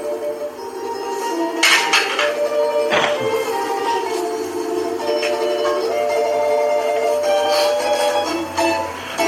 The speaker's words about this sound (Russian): Слуга убирает посуду и уходит, утаскивая за собой девочку